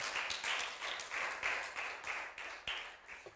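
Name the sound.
audience applauding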